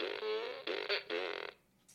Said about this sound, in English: Yep. Fart. Yeah, that, that, we didn't, that was big fart.